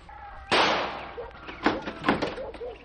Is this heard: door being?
yes